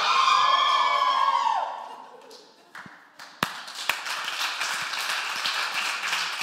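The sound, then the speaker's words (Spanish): A Christian audience of many voices shouts and cheers with joy, loudly at first, then the noise dips and turns into scattered claps, taps and a continuous murmuring crowd roar. “Lo voy a gritar. Uno dice, canta y grita de alegría.”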